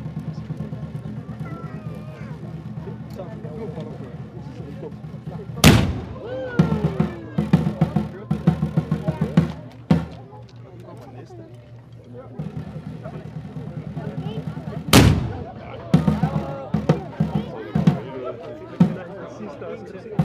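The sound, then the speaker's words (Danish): Two loud, sharp cannon salute shots from the cannons on Sønder Mole boom out roughly nine seconds apart, each echoing briefly, over a steady low engine rumble and the murmur of a crowd talking. “nu kommet ud til kanonerne på Sønder Mole, og der bliver først affyret tre skud.”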